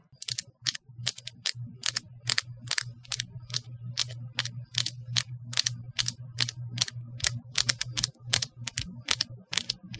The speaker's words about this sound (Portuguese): Se você está ciente e deseja continuar, permaneça na linha após o som das minhas unhas novas batendo umas nas outras.